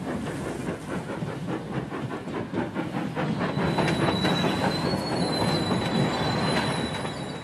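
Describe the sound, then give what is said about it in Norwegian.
A train arrives as two Danish brothers wait for it, with rhythmic wheel clatter, then high, sustained metallic squealing of brakes and wheels grows as it slows; loud, with no voices. “I første bilde står de danske brødrene og venter på toget.”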